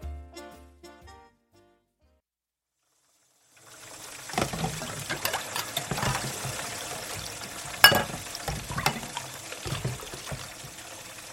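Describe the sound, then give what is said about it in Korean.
After a brief tonal phrase and a short pause, water runs steadily from a tap while dishes clink and clatter as someone washes the dishes as their first task after arriving at work, with one sharper knock of crockery partway through, moderately loud. “누구나 짐작하듯 이건 설거지하는 소리다.”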